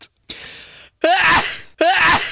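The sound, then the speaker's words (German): Two loud sneezes in quick succession, each a sharp explosive burst with a breathy tail, preceded by a quick intake of breath. “Du bist ja lei am Niesen”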